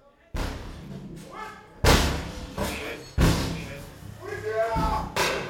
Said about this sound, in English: They start pounding the door. They say it in Spanish like, get out, get out, and put their hands in the air